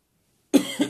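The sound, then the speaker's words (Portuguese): After a moment of silence, a person's sharp deep breath, taken after waking short of breath, breaks into a short cluster of raspy coughs, two or three quick bursts in a row, with a faint wheeze in the background and no talking. “Além de dar uma tosse, é... dá pra escutar um chiadinho no fundo.”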